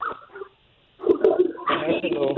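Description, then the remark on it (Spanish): A small dog barks in a few quick, high yips and lets out whimpering whines. There is a brief quiet gap before a louder, more sustained burst. “Oye, ¿qué perrita salió tu esposa?”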